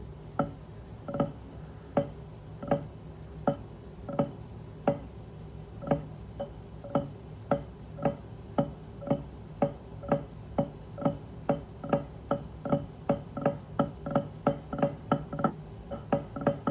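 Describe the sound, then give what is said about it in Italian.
Drum rudiments, single and double drags, played as crisp, sharp stick strokes in a steady repeating pattern that gradually speeds up and grows denser toward the end, with no voices. “Comunque, faccio sentire single drag e poi magari faccio anche il double drag o il ratama Q”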